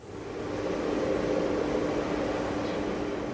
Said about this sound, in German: Was klingt wie das Heulen des Windes, ist der Sound des bislang erfolgreichsten Experiments der Magnetfusion. Am 21. Dezember 2021 sperrt der Versuchsreaktor JET in England Wasserstoff in einen ringförmigen Magnetkäfig und erhitzt ihn mit Mikrowellen